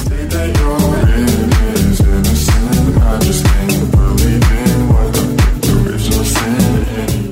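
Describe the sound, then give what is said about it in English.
A loud, upbeat electronic dance track plays, driven by a steady pounding kick drum at a brisk tempo with crisp percussion and bright synth layers filling the mix throughout. “Oh, Matt, cannot wait to chat to our next guests who have made me dance all lockdown.”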